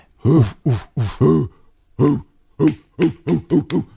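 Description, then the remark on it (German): A voice imitates the Icelandic fans' 'huh' chant: a series of loud, short grunted shouts, first spaced, then a pause, then quickening into five rapid bursts, alone. “Spätestens, spätestens seit der Europameisterschaft. Wie war das?”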